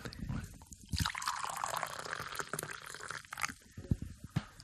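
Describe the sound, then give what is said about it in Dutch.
Coffee is poured steadily into a cup for a guest for a couple of seconds, the liquid's tone rising as it fills, clear, followed by a few light clinks and drips. “ik zal je wat koffie inschenken.”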